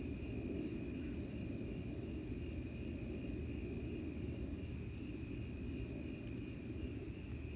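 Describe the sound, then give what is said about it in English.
Steady, continuous cricket chirping fills the night air, a high shimmering drone layered over a low background rumble, with no voices present. “I wonder if you can hear the crickets.”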